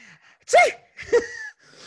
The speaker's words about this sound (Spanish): ahora, di, ahora dilo así, estornudando. sí.